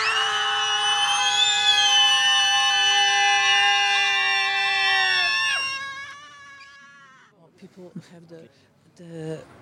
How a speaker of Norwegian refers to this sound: You can scream for happiness too. So they're all different types of screams, and I hope that we can register all the diversity.